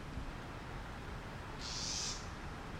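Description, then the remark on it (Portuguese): A house wren (corruíra, garrincha) gives a single harsh, buzzy scolding call, high-pitched and lasting under a second, over a steady background of low rumble and hiss, heard during a morning walk shortly before 7 a.m. “E esse passarinho que está gritando é uma corruíra, é um garrincha.”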